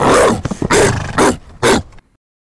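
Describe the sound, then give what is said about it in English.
Loud barking of hunting hounds in four broad, harsh bursts over about two seconds, with rough yelping and yowling tones, like several hounds baying together before falling silent. “And then you start to hear barking the barking and yowling and yipping of hounds, hunting dogs, right?”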